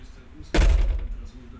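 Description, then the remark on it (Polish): A door swings shut, recorded with the microphone turned 180 degrees toward the door: a single solid thud, its low boom and slight rattle fading over about half a second against a quiet hum. “Zamykam drzwi, czyli jest na drzwiach.”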